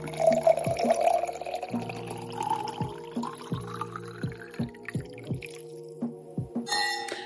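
A drink is poured steadily into a glass, the gurgling pitch climbing as it fills, over soft rhythmic thumps and a low tonal backing, ending in a brief bright splash.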